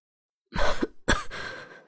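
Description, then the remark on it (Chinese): Two rough, breathy coughs in quick succession after nearly choking on food stuffed into the mouth and swallowing a bite, the first short and sharp, the second longer and trailing off into a raspy exhale, with no talking around them. “被塞得差点憋过去，赶紧咬下一口咽下去，咳嗽了两声道”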